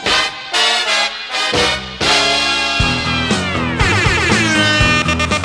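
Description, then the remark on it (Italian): The opening theme jingle of the radio show Un sacco belli on Radio Company plays loud and upbeat, with punchy brassy chord stabs, then sustained bright chords and rising, swirling synth lines, with no voices over it. “Ah, grazie per la sigla, grazie, grazie per la sigla.”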